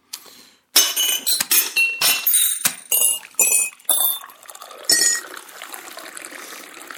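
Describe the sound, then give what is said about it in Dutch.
Drinks, cognac and port, are poured into glasses, liquid splashing and trickling in several bursts with bright clinks of glass, fairly loud, no talking. “Eh, wil jij een glas cognac erbij?”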